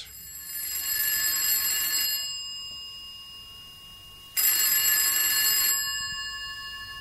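An old-fashioned telephone bell rings loudly in two long, metallic bursts separated by a short pause, with no voices present.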